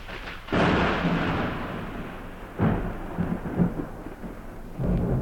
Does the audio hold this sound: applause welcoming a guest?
no